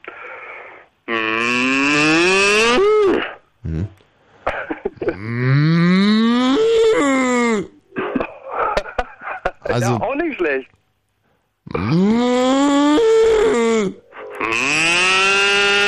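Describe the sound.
Two people take turns imitating a cow's moo, drawn-out, loud, harmonic lows that rise and waver in pitch, separated by brief spoken remarks and a short pause.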